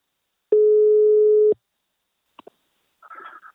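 A single steady telephone ringback tone sounds clearly for about a second during a call to the CEO of the partner company Invacare, then a couple of sharp clicks like a line connecting, followed by a brief muffled rustle.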